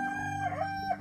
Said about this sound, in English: closest was the rooster flying up as close as he could to my ear so that he could keep singing.